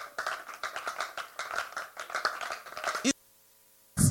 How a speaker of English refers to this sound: Give, give Jesus a clap ovation. I give anyone the best clap you can ever, ever give. Give Jesus the best clap you can ever.